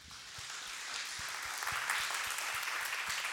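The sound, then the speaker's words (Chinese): An audience claps steadily, offering its applause to God, a dense wash of many hands blending into a continuous crackle that holds at an even, moderately loud level throughout, with no voices over it. “那我们帮让奖掌声归给神好吗？”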